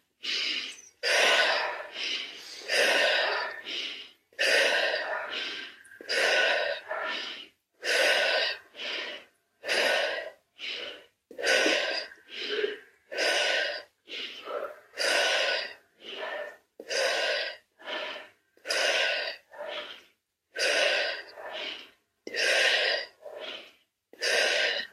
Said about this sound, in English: We'll do another lot of turtle breathing, and then we'll intend with the in breath at the end that the Holy Spirit breath goes into our unconscious mind where our conscious mind cannot reach. So, another 14 turtle breath.